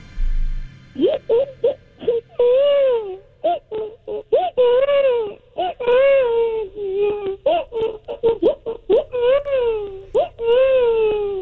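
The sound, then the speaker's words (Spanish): A man's voice imitates a screaming baby crying as a talent act on the Juqueo Gag Talent show, with loud wailing bursts that rise and fall in quick succession for several seconds. “Vamos a escuchar a este bebé gritón y le decimos, ¿cuánto vale tu show?”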